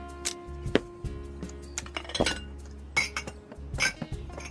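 Glass clinks and chinks several times, bright and irregular, with a low steady hum underneath and occasional soft knocks, as wine is poured into a big wine glass.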